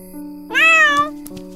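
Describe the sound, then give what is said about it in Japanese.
A single drawn-out cat meow, clear, rising then falling over about half a second, with a steady low hum and faint clicks in the background. “あ、猫さん。野良猫かしら。”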